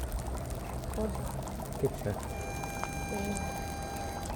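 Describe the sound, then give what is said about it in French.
Thermal hot spring water bubbles and gurgles steadily, with a few brief pops rising above a dense, continuous wash of liquid sound, and faint voices murmuring underneath. “J'enregistre les bulles des sources thermales.”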